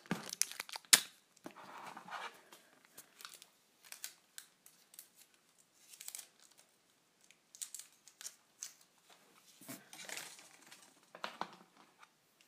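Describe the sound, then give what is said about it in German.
Adhesive tape being pulled and torn off in short, crackly bursts to fasten a string of fairy lights, fairly quiet, with brief pauses and crinkling between pulls; no one speaks. “Klebeband.”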